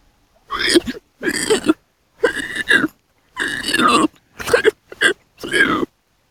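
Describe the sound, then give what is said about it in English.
A voice imitates a running, medium-sized pig about four feet tall on its hind legs, producing seven short, huffing breaths and gruff snorts in a quick, uneven rhythm, each burst fairly loud with brief pauses between. “Now, can you give me some of those breath sounds around it, like as it's moving? How does it run?”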